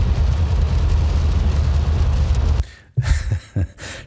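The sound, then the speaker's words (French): Dense, steady roar of heavy rain drumming on a car over deep road rumble while driving on Highway 417 in Ontario, loud and continuous for a few seconds before thinning out into uneven bursts. “pensais pas qu'on pouvait entendre la pluie à ce point-là.”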